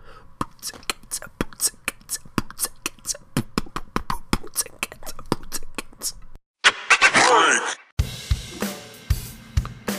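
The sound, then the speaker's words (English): Beatboxing: a single voice fires off a quick, steady run of clicky kick and snare sounds in a 'boots and cats' pattern, breaks into a short buzzing vocal sweep, then resumes the percussive beat. “And just remember, if you're ever like in an impromptu beatbox battle,”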